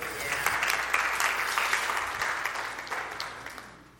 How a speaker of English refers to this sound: So, round of applause, please, for Philip.